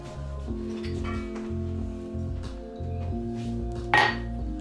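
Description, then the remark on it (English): A drinking glass gives a single bright clink as water is served, near the end, louder than the steady low hum and murmur that fills the background. No one speaks. “One glass of water. i have a glass of water.”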